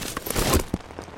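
Rain patters steadily on a hard surface, a dense crackling hiss broken by a few heavier drops, with no voices over it.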